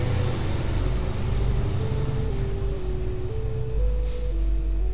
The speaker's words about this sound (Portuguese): só um caminhão passando aqui.